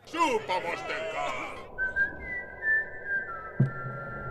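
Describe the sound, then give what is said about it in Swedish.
A scene from a 2011 radio drama production: a gruff drum major's male voice briefly, then a man whistling clearly, holding long, steady notes with small pitch shifts. A soft thump sounds near the end. “Och så här låter den burdusa tamburmajoren i Radioteaterns version från 2011 när han riktar sig till den visslande Wojciech.”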